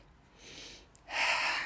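An airy inhale taken before speaking: a softer draw of breath first, then a brief pause and a deeper, louder breath pulled in. No speech, just the rushing, breathy sound of air.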